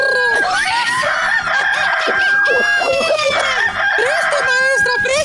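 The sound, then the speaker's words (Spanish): A rooster from Oaxaca crows loudly and repeatedly, its harsh, high, wavering calls overlapping one another in a dense, continuous run lasting about five seconds, with other squawking fowl sounds mixed in. “Déjenme hablar del gallo de Oaxaca.”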